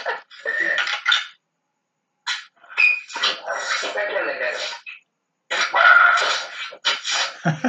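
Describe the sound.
A small pet dog barks repeatedly in short, loud bursts, separated by brief pauses, while people talk around it.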